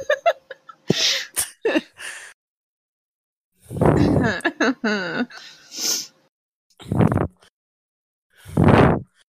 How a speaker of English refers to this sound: You're breathing into the mic. I'm sorry.